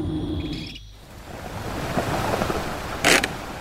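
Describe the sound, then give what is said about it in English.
Ocean waves wash steadily onto the shore in a continuous roar, swelling into a brief louder surge near the end. No one speaks. “We get to the sea.”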